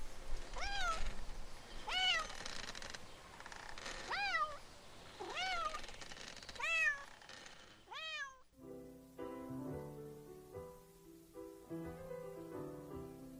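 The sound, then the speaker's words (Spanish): A cat meows repeatedly, loud, about once every second or so for several seconds, then the meowing stops and soft instrumental music takes over. “Desde ese día, mi vecino no me habla porque se imagina que yo me robé a su gato.”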